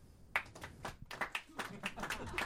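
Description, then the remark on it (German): An audience claps quietly and sparsely, a thin scattering of hand claps in an uneven rhythm, low in level with no voices over it. “Das ist das gleiche Phänomen, das wir vor ein paar Tagen schon festgestellt haben, dass die Leute ihre Klatschenergie so sparen.”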